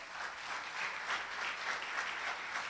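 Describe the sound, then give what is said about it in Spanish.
An audience applauds God steadily, a dense wash of many hands clapping together at a constant level throughout, with no voices standing out. “Entonces, denle un fuerte aplauso a nuestro Dios.”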